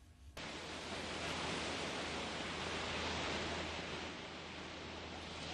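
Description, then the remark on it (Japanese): Ocean waves of the Taiwan Strait wash onto the shore near Anping, Tainan, Taiwan, in a steady, hissing roar that holds at an even loudness after a sudden start, with a faint low rumble underneath and no voices. “えー、台湾海峡を今私は間近に、えー、見ることができておりますこの波の音が聞こえますでしょうか”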